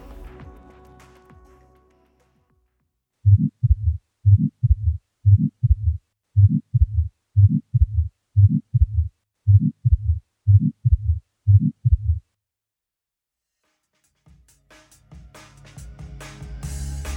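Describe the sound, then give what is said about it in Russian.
A ventricular septal defect heart murmur: about a dozen steady, evenly spaced heartbeats with a whooshing rumble between them, heard alone and fairly loud, with faint background noise before and after. “Он тем громче, чем выше градиент давления и чем меньше по размеру дефект – по мере роста легочной гипертензии, уменьшающий градиент давления между левым и правым желудочками, интенсивность шума убывает.”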